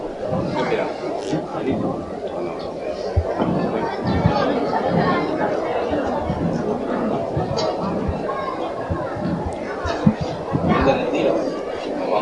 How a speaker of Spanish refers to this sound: Ahora mismo son sonidos del interior de la iglesia de San Juan.